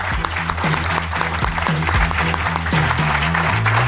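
Steady audience applause fills the whole stretch, a dense rush of many hands clapping at an even level, with some low sustained tones running underneath.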